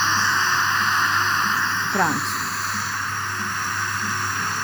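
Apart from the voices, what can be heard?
pink noise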